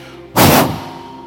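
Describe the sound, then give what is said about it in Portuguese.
A sudden loud, breathy whoosh of an audience filling their chests and blowing out air together on a count of three, imitating a strong gust of wind, lasting about a third of a second before fading into room noise. “Solta o ar, bem, enche o seu peito e vou contar até três. Você solta um vento bem forte.”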